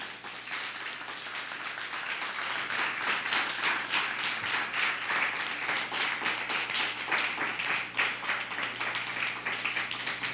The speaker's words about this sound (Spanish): un fuerte aplauso.